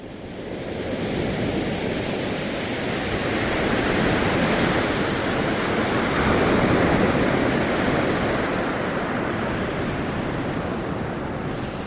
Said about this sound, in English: Wow, it's almost like you've never heard a wave before. That's exactly how I feel.